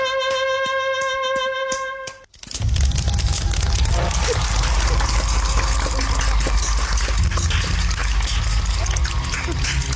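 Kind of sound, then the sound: crowd, applause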